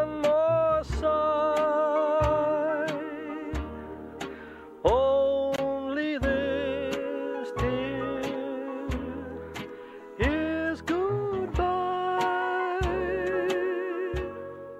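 Film soundtrack music plays on its own: sustained, wavering synth-like chords with gliding pitch over a steady pulsing bass, full and close throughout, with no voices.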